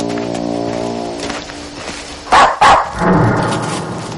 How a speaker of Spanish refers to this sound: Después de ladrar a la puerta, Vito le sigue.